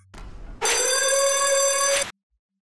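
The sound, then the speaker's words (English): A gym's lunk alarm rings out loud, one sustained bright electronic tone lasting about a second and a half before cutting off abruptly, with only faint low rumble before it. “And that darned alarm's got to be going off.”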